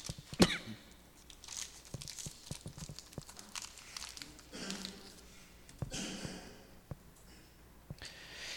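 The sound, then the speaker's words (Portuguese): Crinkling and crackling of a plastic throat lozenge wrapper being opened, with irregular sharp rustles and small snaps spread over several seconds, fairly quiet and with no talking. “Eu vou pegar uma balinha para a garganta, tá?”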